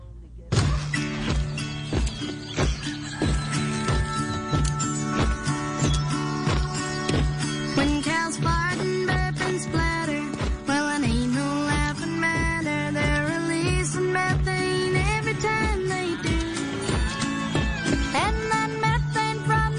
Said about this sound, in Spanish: Burger King lanzó una campaña hace dos días maravillosa. Eh, es un video musical eh, protagonizado por niños y quiero que escuche un poco cómo suena.